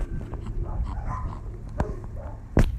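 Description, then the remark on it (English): Large dogs bark over steady outdoor background noise, with two sharper, louder barks standing out near the end. No one speaks. “These dogs are gonna.”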